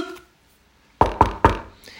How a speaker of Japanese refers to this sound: リュポンさん、いよいよ強くノックするが効き目がない。